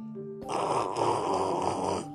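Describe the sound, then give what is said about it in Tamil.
A voice imitates a single long, rasping snore of a very tired man sleeping on the ground, a loud rattling breath held for about a second and a half, with no other talking. “இப்படியே படுத்து தூங்க ஆரம்பிச்சிட்டார் தரையில படுத்து அப்படின்னு கொரட்ட சத்தம் வேற விட்டாரு ரொம்ப களைச்சு போயிருந்தாருல அதனால கொரட்ட சத்தமெல்லாம் வரத்தானே செய்யும்”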